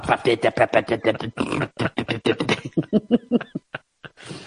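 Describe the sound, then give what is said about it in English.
A voice imitates the flapping, sputtering honk of a deflated balloon with a hole cut in its end, fitted over a car exhaust pipe, with rapid rhythmic bursts that slow and trail off near the end. “There's a there's a trend on on TikTok at the moment where people are putting in, um, deflated balloons onto their exhaust pipes and cutting a hole at the end.”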